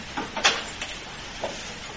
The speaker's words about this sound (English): So why don't you shift your chairs so that you're actually facing each other a little bit better?